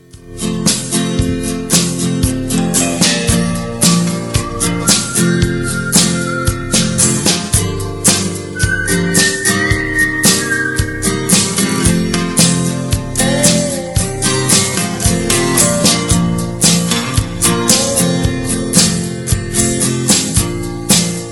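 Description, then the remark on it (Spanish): A full-band classic song plays loud and steady on the radio show Tiro al Aire, with driving drums, bass and bright instrumentation keeping an even beat throughout; no one talks over it. “Vamos a escuchar un poquito, escuchar este tema”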